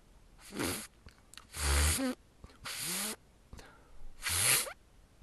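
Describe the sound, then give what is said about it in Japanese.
A person attempts a beatboxed zipper sound: four or five short, breathy, rasping bursts with sweeping pitch, separated by brief pauses and clicks, with no talking. “特殊音がまだ出ないよな。この辺がね、すぐ出ないんだよね。クラブスクラッチとか。ジッパーサウンドは、”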